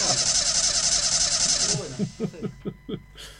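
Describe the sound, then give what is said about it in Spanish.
A car engine being started: a steady broad hiss gives way to a quick run of rhythmic low chugging pulses, moderately loud. “lo está arrancando.”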